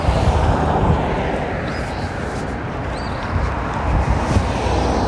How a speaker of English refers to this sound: Crossing the creek here, the Weracoba Creek. Columbus High up on the left, up on the hill. Birds singing some cars passing here on 17th.